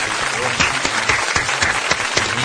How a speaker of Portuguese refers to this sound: Vamos, vamos, vamos bater uma salva de palmas aí pro nosso.